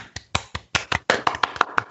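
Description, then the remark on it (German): A few people clap their own hands in place of played-in applause, in a loose, uneven rhythm, about a dozen sharp claps over two seconds, with some overlapping and quickening toward the end. No talking. “können ja mal selbst klatschen.”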